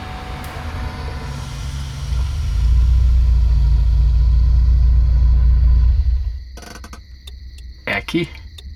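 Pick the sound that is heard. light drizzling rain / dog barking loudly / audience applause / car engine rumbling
car engine rumbling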